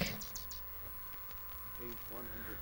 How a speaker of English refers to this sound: we just listened to the blue jay.